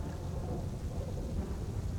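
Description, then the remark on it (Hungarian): Steady, dense rain hisses without a break, backed by a deep continuous rumble that suggests a heavy downpour or thunder. No voices are heard. “Az ön régiójában esik az eső.”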